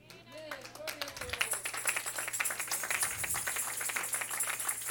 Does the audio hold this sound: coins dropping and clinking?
no